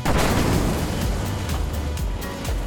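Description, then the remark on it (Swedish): A loud, booming bomb explosion in the great hall of Stockholm Central Station, followed by a sustained deep rumble with scattered crackling bursts, filling the whole clip with no one speaking. “Varenda stockholmare hör smällen.”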